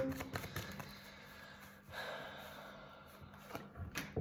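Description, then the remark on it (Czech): Tarot cards are shuffled and laid down for a reading about work: a run of soft papery riffles and crisp flicking snaps, with short slaps of cards meeting a surface. The sounds are fairly quiet, and no one speaks. “Co se týče práce, tady tak ještě hodíme další karty.”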